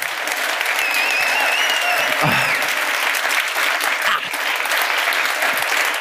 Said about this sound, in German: Jetzt müssen Sie einmal klatschen.